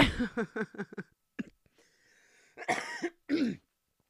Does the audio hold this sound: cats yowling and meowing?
no